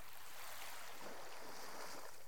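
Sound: ocean waves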